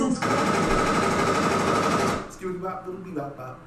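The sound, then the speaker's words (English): A loud, rapid burst of automatic gunfire rattles continuously for about two seconds, then cuts off abruptly as a voice starts talking. “Those gunshots reminded me.”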